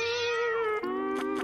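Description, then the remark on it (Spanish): A cat lets out a long, drawn-out meow, its pitch dipping partway through before a slightly strained continuation, with no voices in the background. “Ay, qué lindo, gato hermoso.”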